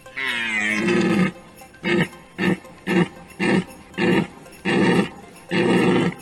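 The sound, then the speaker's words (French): A reindeer, the leader of the reindeer, grunts: one long, throaty call followed by a run of six short, rough grunts in an uneven rhythm, loud and alone with no talking. “À notre micro, un commentaire de Rudolf, le leader des rennes”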